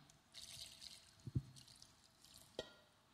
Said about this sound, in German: Er nahm Wasser, nahm die Füße, goss Wasser in eine Schüssel